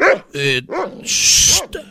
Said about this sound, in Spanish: Es que ese perro que está ladrando es el perro que salió en la película de Coco y está en el cielo aquí con nosotros.